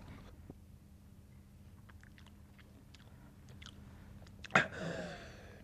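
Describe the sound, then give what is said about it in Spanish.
Quiet drinking of water with soft wet mouth clicks and gulps over a low background hum, ending in a sudden loud breathy gasp that fades out. “Toma, bebe.”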